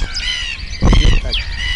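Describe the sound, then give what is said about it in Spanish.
A busy chorus of calls from different kinds of gulls, whimbrels and many small birds: gull-like squawks mixed with whistling and chirping, continuous, with a brief louder low rumble in the middle. “pues esto es nuestros barrios en medio de distintos tipos de gaviotas, zarapitos y muchos pajaritos.”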